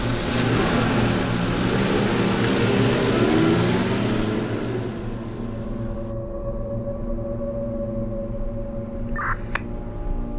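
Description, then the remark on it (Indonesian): A car engine runs and revs as the vehicle pulls out of a garage, a steady rumbling drone that eases slightly partway through, with a brief faint clack near the end. “target sudah keluar dari garasi dengan mobilnya.”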